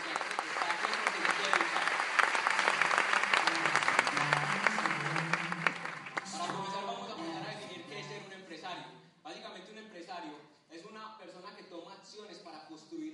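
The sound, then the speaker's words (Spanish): Loud, dense audience applause fills the first six seconds, a steady wash of many hands clapping, then fades out as a single voice begins speaking. “Así que es un fuertísimo aplauso”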